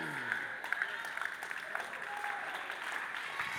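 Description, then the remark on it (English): A church audience applauds steadily during a sermon, dense overlapping claps filling the space, with a faint voice rising briefly beneath the noise. “You're clapping.”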